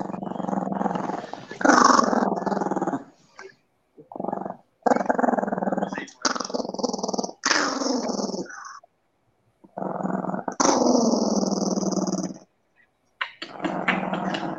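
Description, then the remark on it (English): A small dog growls in a series of rough, rumbling bursts separated by short pauses, loud, with snarling rises in a few of the bursts. “What was going on with the dog?”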